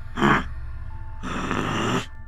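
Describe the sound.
A person imitates a snorting growl, like a tiger or lion, with their voice: a short, harsh breathy burst, a pause, then a longer rough snort, fairly loud.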